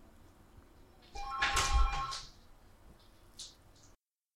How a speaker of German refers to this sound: Telefon bei uns.